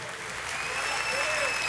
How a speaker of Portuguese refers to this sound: Dá uma salva de palmas bem forte ao Senhor.